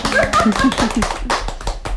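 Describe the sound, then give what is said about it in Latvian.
A small group clapping in a studio in a quick, irregular patter for about two seconds, with a brief vocal exclamation near the start. “O, oh, aplausi šeit studijā!”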